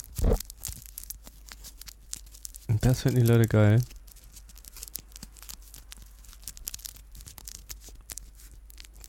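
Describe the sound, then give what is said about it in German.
Soft crinkling and tearing noises crackle steadily throughout, like ASMR trigger sounds, with a brief spoken remark breaking in partway through. “Das ist ASMR. ASMR nicht, nicht dieses Gelaber, sondern genau hier sowas.”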